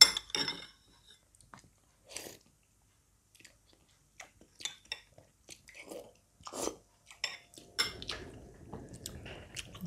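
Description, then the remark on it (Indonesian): Eating sounds: scattered sharp clinks of cutlery against a plate mixed with soft chewing and crunching, irregular and fairly quiet, with no one talking. “sorry aku tadi habis makan lapar”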